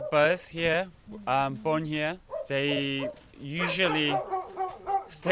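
Several dogs bark, yelp and whimper on a dog farm in South Korea, their high-pitched, overlapping cries coming in quick bursts with short gaps throughout.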